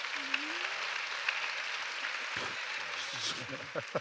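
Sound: audience applause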